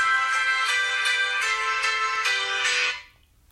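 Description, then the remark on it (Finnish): A mobile phone rings with a bright, repeating electronic tone, pulsing steadily about every third of a second for three seconds before cutting off abruptly. It is clear, with no talking. “Puhelin pilas kaiken. en tosiaan muistanut laittaa ääni.”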